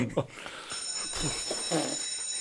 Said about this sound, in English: Whoa. Don't forget, that bell's for us, not for you.